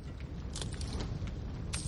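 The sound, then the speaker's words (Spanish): Several uneven footsteps crunch across loose gold coins as Thorin walks over mountains of gold in immense halls, each step a bright jingling clatter, moderately quiet, over a low steady rumble. “Thorin camina sobre las monedas de oro.”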